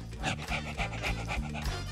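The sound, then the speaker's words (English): A dog pants rapidly and steadily, a quick rhythmic series of breathy huffs lasting a couple of seconds, with no talking. “That's your dog?”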